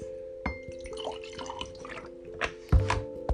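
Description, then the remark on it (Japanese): A plastic PET bottle is handled, giving off irregular crinkles, clicks and faint sloshing, with a couple of sharper crackles near the end. No one speaks. “ペットボトルの音で”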